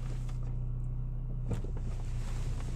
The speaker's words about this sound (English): Ooh, getting this car warmed up a little bit. 27 degrees Fahrenheit. Yeah, so I'll just let it roll.